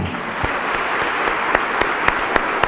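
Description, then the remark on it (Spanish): An audience claps hands in sustained applause as adoration to God, a dense wash of clapping with sharper, louder claps standing out at a fairly steady beat, no voices heard. “Recibe la adoración de nuestras palmas, Yahshua, Hamashiach, Omen, de Omen.”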